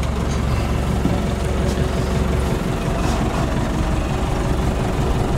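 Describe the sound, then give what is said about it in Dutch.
The engine of a tractor that has been in use for some time idles with a steady, low, rumbling drone that stays even in loudness throughout, with no voices over it. “ik stap nu de trekker in.”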